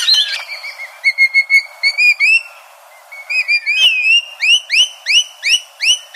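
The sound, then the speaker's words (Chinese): Rainbow lorikeet calls: loud, high-pitched chirps and screeches repeated in quick bursts, ending in a steady run of rising, whistle-like squeals. No one speaks. “现在那个 Rainbow Lorikeet 就是彩虹犀利鹦鹉啊，在墨尔本也是属于就是数量比较多的一种呃一种鸟了。”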